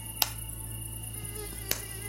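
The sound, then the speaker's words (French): A thin, steady mosquito whine hums throughout, broken twice by sharp hand slaps, one early and one near the end, each crisp, as someone tries to kill the mosquito with a bare hand. No one speaks. “Bingo Mon premier exploit, tuer à main nue un moustique très énervant.”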